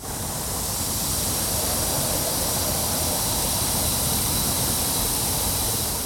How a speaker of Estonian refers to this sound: ja mis aur sealt meil tuleb? see on selline modernne purskkaev meil, selline auru purskkaev, aurukaev see udupurskkaev paiskab õhku auru mille tuul laiali viib ja tekitab vaatajates elevust.